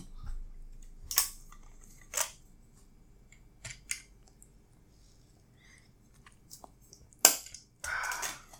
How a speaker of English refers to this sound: Let me take a sip of water before we continue.